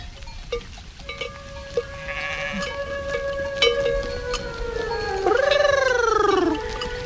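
animal, sheep bleating

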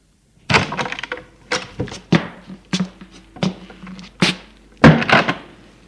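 household object, door being opened

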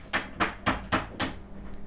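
tool, hammer blows

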